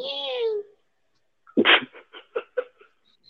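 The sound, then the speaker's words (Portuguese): A cat gives one soft, drawn-out meow that slides downward in pitch, followed after a short pause by a string of quick, breathy bursts. “Morri, dá pra ouvir sim uns miadinhos.”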